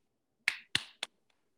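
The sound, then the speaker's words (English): Three sharp hand claps ring out in a quick, even rhythm, each one crisp and brief with a short decay, and no voices alongside them, given as a salute to a football player. “I can't break my hand clap out all the time, but for somebody that's getting a first down every time they touch the ball, whether as a receiver, a wildcat, or a running back, you sir, you sir, get the nod”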